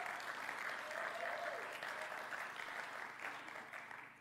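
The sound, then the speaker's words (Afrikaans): Sustained applause from an audience thanking the volunteers who gave their time that week, a dense steady wash of many hands clapping that holds fairly level before tapering slightly toward the end, with a faint voice or cheer briefly audible in the mix. “Kom ons gee vir hulle net 'n huge hande klap.”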